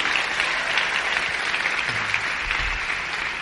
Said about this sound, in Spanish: Este año estamos cumpliendo 10 años en Living Room. 10 años. ¿Alguien sabía eso? Yo creo que eso merece un super aplauso.